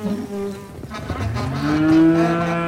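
A cow moos loudly, one long drawn-out low call that rises and swells in strength toward the end, with faint buzzing of flies in the background.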